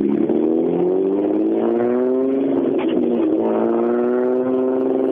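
A six-cylinder BMW engine revs hard as it passes, its tone climbing, dipping briefly and rising again over a few seconds, loud and steady with no one talking.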